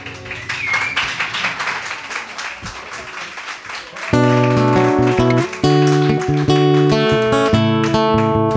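An audience applauds for about four seconds, a dense patter of many hands clapping, then loud music with steady sustained chords abruptly takes over.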